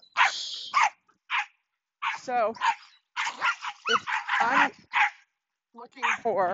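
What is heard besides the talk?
small dog barking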